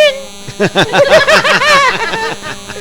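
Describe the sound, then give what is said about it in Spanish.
Someone imitates a mosquito buzzing past one's ear with their voice, a wavering, nasal buzzing hum that rises and falls in quick pulses for a couple of seconds, ending in a raspy trailing drone. “No, ¿a poco no se escucha así cuando te pasan en el oído?”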